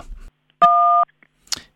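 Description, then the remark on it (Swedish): A single telephone keypad tone, a button press in Bandit's automatic answering machine menu, sounds for about half a second, steady and clear, set off by a brief rustle before it and a short noisy burst after. “Du har kommit till Bandits automatiska telefonsvarare. Är du man? Tryck 1. Är du kvinna? Tryck 2.”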